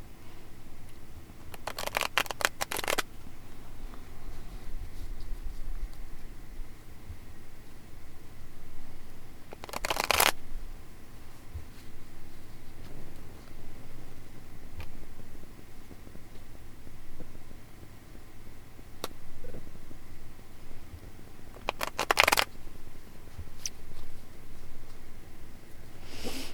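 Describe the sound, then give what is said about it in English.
A deck of tarot cards is shuffled for a reading in three brief, crisp riffling bursts spread out across a long, quiet stretch, with no one talking. “Okay, so I had a couple cards that were like kind of dancing around when I was shuffling, so I um, put them to the side.”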